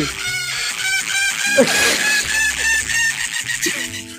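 Loud, exaggerated moaning from a voice, the 'gemidão do zap' prank audio sent as a message and played loud on a cellphone, drawn-out and strained, filling the whole few seconds with harsh wavering cries that sound almost like squawking.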